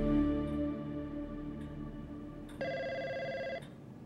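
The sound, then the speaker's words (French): A telephone rings with a steady electronic tone, then a brighter, louder ring burst lasting about a second, with faint clicks in between, in the office of Ben Jerry's CEO Perry Odak in South Burlington, Vermont, in August 1999. No one speaks. “Perry Odak, le PDG de Ben Jerry's, est dans son bureau en train de lire ses derniers courriers reçus lorsque le téléphone sonne.”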